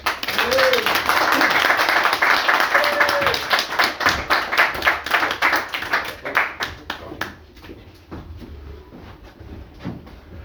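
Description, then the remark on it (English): A crowd applauds with dense, steady clapping that stays loud for several seconds, then thins out into scattered individual claps and fades away by the end. “anyway, right, before we start, everybody, give a man another round of applause because there's a lot I can say this.”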